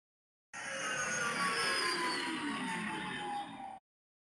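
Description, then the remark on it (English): A single X-wing starfighter flyby: a loud, roaring engine whoosh with a high whine that slides downward in pitch as it passes, lasting about three seconds and cutting off abruptly, with no voices. “That is the X-wing flyby sound.”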